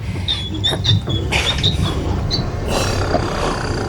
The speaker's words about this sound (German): Die Wand gleitet zur Seite. Eine Geheimtür.